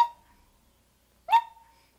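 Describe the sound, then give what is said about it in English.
Kittens attempt to bark like dogs, shouting at the top of their lungs and letting out two brief, squeaky yelps about a second apart. The calls are fairly clear, with silence between them and no talking. “they shouted from the top of their lungs, but it wasn't enough to make a dog sound.”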